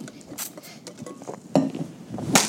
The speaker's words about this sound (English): All right, let me get a sip of water here.